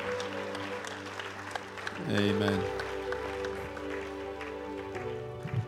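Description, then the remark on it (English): A crowd claps steadily and loudly in praise of God, a dense crackling patter layered over sustained musical tones, with a voice briefly calling out over the applause. “Go on, give God a clap of him.”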